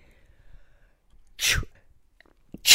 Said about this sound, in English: oh my God, I had to sneeze twice, and sneezing now fills me with horror because every time I sneeze, the pelvic floors go through a situation.